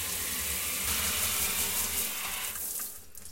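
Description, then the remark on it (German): Shower water runs in a steady hiss of spray for a few seconds, then thins and fades out near the end. No one speaks. “Das heutige Wort ist die Dusche. La ducha.”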